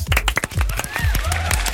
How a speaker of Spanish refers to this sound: Aplausos, aplausos. Basta de aplausos, muchos aplausos.